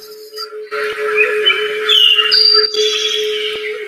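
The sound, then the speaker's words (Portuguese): Birds chirp and whistle outdoors in a field with mountains in the background by day, a busy, continuous chorus of short high calls, moderately loud, over a steady low tonal hum, with no talking. “Nesse momento, somos deslocados para um campo no fundo há montanhas Há tá também pássaros.”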